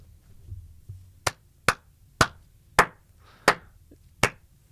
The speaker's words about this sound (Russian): Зачем ты меня шлепал по жопе сейчас? Я не понимаю. Я считаю, что это харасмент, я такое осуждаю.